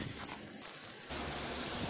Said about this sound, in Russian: Погода прескверная. Идет такой мерзкий дождик вперемешку со снегом. Куртка уже промокла, и при этом еще дует ветер.